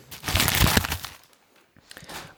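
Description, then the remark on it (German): Crinkly paper rustling: a loud, busy burst of crackling handling for about a second, a brief pause, then a softer second bout of rustling. No one speaks. “Aber ich raschel trotzdem dafür, raschel, oder?”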